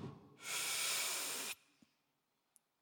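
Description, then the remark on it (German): A single deep, loud demonstrated inhale drawn in over about a second, a broad airy rush that cuts off abruptly, followed by quiet and a couple of tiny clicks. “Wir schnaufen aus und wir schnaufen ein. Einschnaufen so.”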